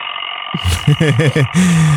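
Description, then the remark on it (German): An alarm clock ringtone plays a quick run of warbling, pitch-sweeping electronic tones followed by one longer held note, all fairly loud over a steady background hum. “wie taugt dir der Wecker so?”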